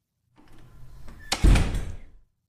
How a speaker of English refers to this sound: Mark closed the door and locked it.